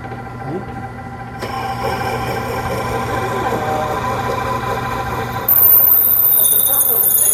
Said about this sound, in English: Crazy. Okay, so it's drilling a hole right through the center of that thing. It's a little stinky.